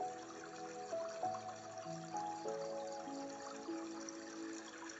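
Water flows and trickles steadily throughout, a soft continuous wash at moderate volume, blended with gentle sustained musical tones. No one speaks.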